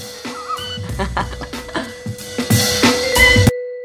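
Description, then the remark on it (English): A plastic chair squeaks and creaks repeatedly, a run of shrill, uneven squeals that grow louder toward the end before stopping abruptly. “I've actually tried to um, spray that WD 40 on it. I can't seem to find the spot that it's squeaky.”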